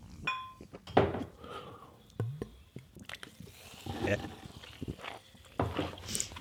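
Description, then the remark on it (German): Someone drinks a hopped beverage from a glass bottle: a sharp clink of glass, then a few soft sips and swallows with liquid sloshing, followed by more light knocks of the bottle. “Aber äh, ich äh, wage mutig und beiß auch wieder in diese Flasche rein. Prost.”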